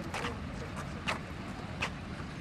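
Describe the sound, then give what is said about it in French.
Steady city street traffic on a square in Westminster, with the Parliament of Westminster to the south and Westminster Abbey to the west, a low engine rumble and a few brief swishes of passing cars, without any clear voices. “Au milieu du trafic, cet îlot euh, que euh, le carrosse contournera, avec donc le Parlement de Westminster au sud et l'abbaye de Westminster à l'ouest.”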